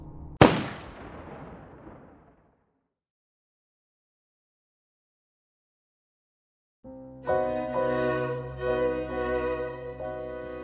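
In the German radio drama series 28 Tage lang, an SS man fires a single sharp, loud gunshot, shooting people in the head. It cracks out and rings away over about two seconds, followed by several seconds of silence before music begins.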